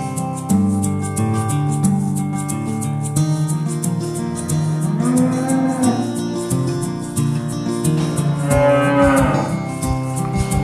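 Two drawn-out cow moos, each rising and then falling in pitch, ring out over steady background music with sustained tones. There is no speech.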